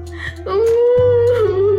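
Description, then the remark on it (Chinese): A voice lets out a loud, drawn-out wail as the Crybaby Princess bursting into tears, holding one high, wavering pitch for over a second over a low steady hum. “爱哭公主大哭起来。”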